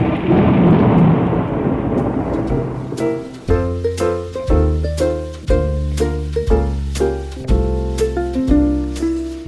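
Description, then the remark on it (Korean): A thunderstorm sound effect for a performance of The Tempest, a storm raised by magic, opens with a loud, roaring rumble of thunder and rain, then shifts into a series of heavy, evenly spaced booming strikes with a ringing tone. No one speaks. “마법으로 폭풍을 일으켜 저들을 모두 잠기게 하라 바람아 불어라 템페스트를 일으켜 저들을 죄다 쓸어버려라”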